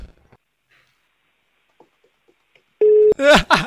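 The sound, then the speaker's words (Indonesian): After near silence, a single brief electronic ringing tone of an outgoing phone call sounds clearly and steadily, then cuts off as a voice begins speaking over the line. “ya deh, langsung aja deh, telepon deh.”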